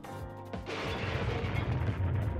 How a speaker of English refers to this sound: Mr. T slammed the bus into the tail assembly so the plane couldn't fly.